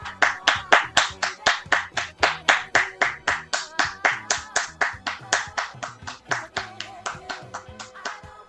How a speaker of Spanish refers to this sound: Bueno, buena poesía, monito. Un aplauso, por favor